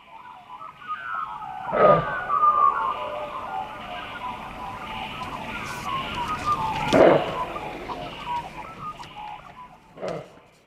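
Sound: many birds calling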